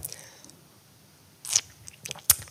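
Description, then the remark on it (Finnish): Someone takes a sip of water, with a few short, wet mouth and swallowing sounds spread over a couple of seconds against a quiet background. “Ai että, vesi.”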